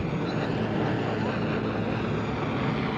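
A helicopter hovers overhead, dropping gas grenades during a clash between demonstrators and police, its steady, loud rotor roar filling the air as an unbroken wash of rumbling, wind-like noise that never lets up.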